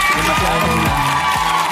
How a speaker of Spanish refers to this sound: pareciera que el aplauso es para mí, pero en realidad el aplauso es para la gente que, ha hecho esa conexión tan bonita con mi música.